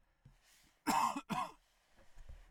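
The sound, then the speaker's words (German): Two loud coughs in quick succession, harsh and breathy bursts, followed by faint throat noises and quiet breathing. “So, du siehst hier live, da muss ich zwischendurch mal husten.”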